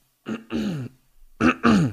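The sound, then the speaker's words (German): Two pairs of short, rough throat-clearing bursts, fairly loud, with a brief quiet gap between the pairs and no speech. “kurze Räusperung hier.”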